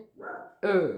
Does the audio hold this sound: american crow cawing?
no